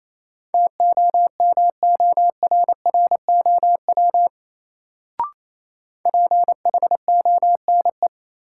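A steady mid-pitched tone keyed rapidly on and off in Morse code at 28 words per minute, sending a word in quick dots and dashes in two runs separated by a short pause and a single faint click, with no voices.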